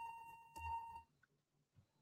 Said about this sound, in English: Except for the fire alarm. Yeah, the fire alarm Yeah, except hard. for the fire alarm.